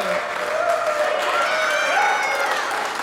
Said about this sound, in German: Es klingt am Anfang immer ein bisschen wie ein Furz, die Fanfare.